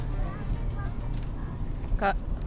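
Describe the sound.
Steady low engine and road rumble from inside a moving car on the way to the speaker's parents, constant throughout, with a brief voice sounding near the end.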